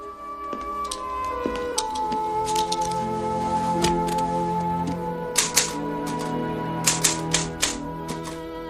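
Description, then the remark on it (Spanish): Typewriter keys strike in quick bursts, sharp clacks clustering irregularly over a sustained musical drone, with denser rapid typing toward the end, as a list of 1,200 Jewish people is finished on the typewriter; no one speaks. “Escuchamos ese momento en que se termina de escribir, en la máquina de escribir, la lista de esos 1.200 judíos.”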